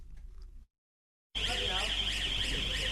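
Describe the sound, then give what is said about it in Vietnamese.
A loud, continuous electronic warning alarm blares with a warbling, sweeping tone, starting abruptly after a brief low rumble and a moment of silence: a toll station alarm on the Da Nang–Quang Ngai expressway in Vietnam, in the Da Nang city section, warning a car that it may not pass. “Đó là tiếng báo động nhắc nhở xe ô tô không được qua trạm thu phí trên cao tốc Đà Nẵng Quảng Ngãi, đoạn đầu thuộc địa phận thành phố Đà Nẵng.”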